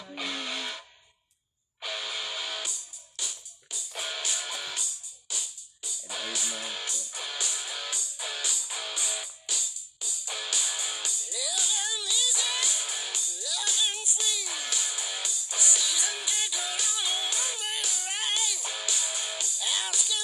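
A hard rock song from 1979 plays loudly and continuously, driven by gritty distorted electric guitar with bending, wailing notes, after a brief silent gap at the start.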